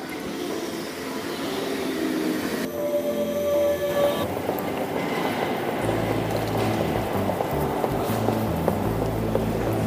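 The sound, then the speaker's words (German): A regional train (RB) pulls into track 1 of a station platform, its steady rumble broken by a brief high metallic wheel squeal, then a deeper low rumbling as it rolls in. No voices. “Gleis 1 Einfahrt RB hoch.”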